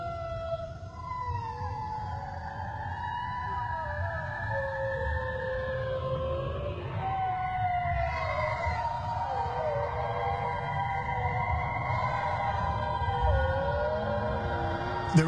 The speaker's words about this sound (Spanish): Había otro sonido en la grabación. Era el grito de un animal. Nos dimos cuenta de que era un bloop. La misma criatura, que la NOAA grabó en 1997. Pero, en este caso, la grabación duraba más tiempo.